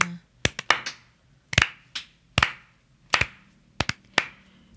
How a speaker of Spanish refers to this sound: Aplauso lento para ti, Argentina. Ay, Argentina.